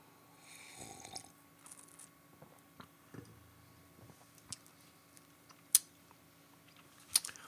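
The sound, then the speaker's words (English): A quiet slurp of beer early on, followed by soft mouth clicks and small swallowing sounds, with a couple of sharp little clicks near the end. No one speaks. “Need another sip.”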